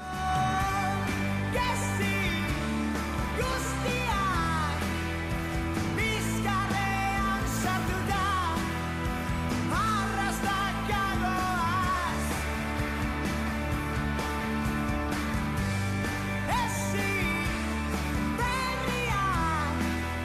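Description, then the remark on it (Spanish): A pop song sung in Basque plays at full volume, a lead singer's melodic vocal riding over a steady beat, bass and bright layered instruments that stay dense and loud throughout. “sacaron su primer gran éxito, que tiene 250.000 escuchas en Spotify”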